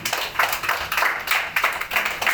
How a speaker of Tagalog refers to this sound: Palapakan natin ang Panginoon.